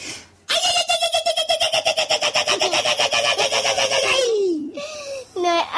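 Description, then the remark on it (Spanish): A Basque irrintzi: one piercing, high-pitched cry held for about four seconds with a rapid, rhythmic warble, sliding downward at the end, then a couple of short, cackling whoops. “No, un irrinchi es un grito que tienen los vascos o no vascos, no sé, por ahí, por ahí arriba.”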